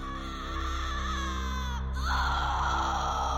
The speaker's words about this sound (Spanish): Al terminar el descenso, solo la oscuridad los aguardaba y algo más, solo que allí no podían ver nada ni nadie, más los gritos en ese lugar eran sumamente fuertes, a escasos pasos.